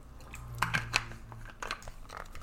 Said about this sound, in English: Sorry, just drinking some soda water.